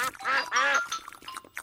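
ducks quacking

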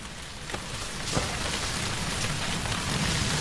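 rain falling

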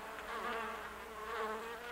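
bees buzzing

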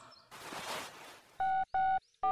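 telephone number being dialed

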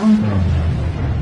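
tiger roar

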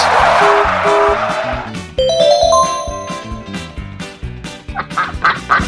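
ducks quacking

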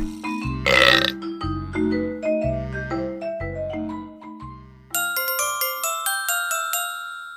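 burp

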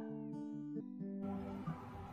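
cat meowing

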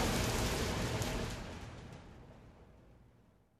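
rain falling

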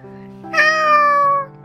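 cat meowing

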